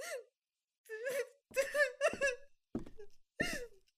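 A woman cries and wails in several strained, sobbing bursts with sharp breaths between them, close and fairly loud, with no words spoken.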